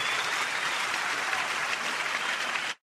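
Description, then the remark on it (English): A burst of applause played as a sound effect, dense steady clapping at an even loudness for nearly three seconds, then cutting off abruptly, with no voices over it. “I was going to do the nice little, uh, nice little applause there.”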